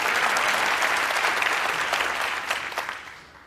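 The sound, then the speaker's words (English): A crowd applauds with dense, steady clapping that holds strong for about three seconds, then thins and fades out toward the end. No voices are heard over it. “Yeah, clap for that.”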